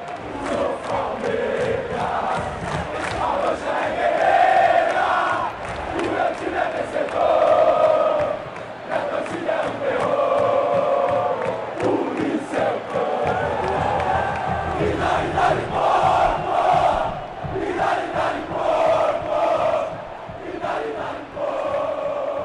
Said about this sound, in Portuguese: O grito de Dali Porco é a trilha sonora preferida em todo o jogo do Palmeiras, dentro ou fora de casa, na vitória ou na derrota.